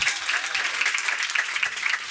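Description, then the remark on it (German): A live audience at the Atelier Theater applauds steadily, many hands clapping at once in a dense, crackling wash of sound that holds an even level throughout with no voices on top. “Erste Frage ist, wer hat die aktuelle Folge schon gehört? Einmal klatschen, also die von gestern.”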